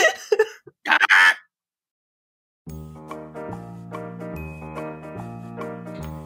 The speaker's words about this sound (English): Um, without further ado, here is the Carrion Crow.